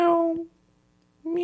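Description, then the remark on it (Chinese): A person's voice imitates a cat's meow twice in an animal-sound guessing game, two short tonal mews separated by a brief silence, each clear and moderately loud. “这个太简单了，这是猫咪在叫。”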